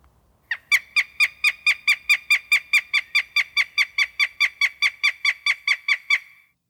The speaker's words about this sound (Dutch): Maar dan gaan we nu nog eventjes één keer luisteren naar dat prachtige geluid van de havik.